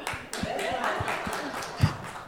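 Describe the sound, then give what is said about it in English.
A short burst of applause, uneven claps rising over a busy wash of murmuring voices and cheering, with one sharper, louder clap near the end. “you, you wanna you wanna lead a round of applause for that?”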